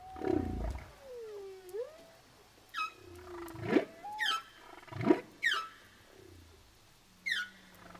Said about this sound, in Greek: Η Φάλαινα τραγουδούσε και ήταν το πιο γλυκό τραγούδι που είχε ακούσει ποτέ.